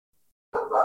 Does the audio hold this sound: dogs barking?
yes